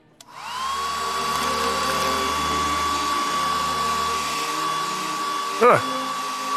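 A hair dryer whirs steadily for several seconds with a thin high whine running throughout, drying a person's wound, interrupted by a brief louder rustle near the end.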